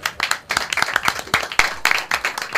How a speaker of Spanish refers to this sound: y un aplauso para él.